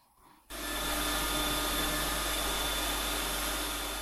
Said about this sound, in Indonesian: Deru mesin pemilah sampah terdengar sedari pagi di tempat pemrosesan akhir TPA Jabon di Sidoarjo, Jawa Timur. Sampah seperti plastik dan kertas karton dipisahkan untuk diolah menjadi pelet hingga briket.